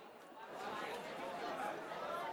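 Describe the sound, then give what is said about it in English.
Steady indistinct chatter from many voices fills a busy fast-food restaurant, a continuous murmur of overlapping conversation with no single clear speaker, moderately loud throughout. “you can kind of hear them going, all right, everyone remember, get your value meals.”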